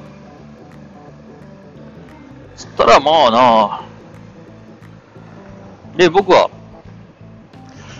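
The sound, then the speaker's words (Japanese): A steady low motorcycle engine rumble with constant wind noise runs throughout, moderately loud, recorded while riding a motorbike in traffic with another motorbike ahead and cars alongside, while a man speaks in two short bursts over it. “えー、まあ、バイクでね、こうやって、えー、まあ、ポッドキャスト、バイクで乗りながらの撮影だ、撮影、録音だと。で、なってくると、まあそういったノイズコントロールだの、まあ、僕のこ、この声ね、僕の肉声っていうものを、ええー、まあ綺麗に届けるっていうのが、まあ重要になってくるわけじゃないですか。”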